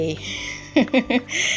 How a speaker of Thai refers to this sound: เสียงไก่ขันเข้ามาคิดว่าเป็นแบ็กกราวที่น่ารักนะคะ